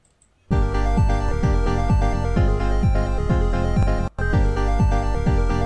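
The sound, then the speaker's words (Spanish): Upbeat electronic game music with a thumping bass and steady, punchy beat, loud and continuous, briefly cutting out for a split second before resuming; no voices. “empecé a perrear hasta abajo nomás con escuchar eso. ¿Cuál es esa? Y hablando de perrear, Street of Rage 2”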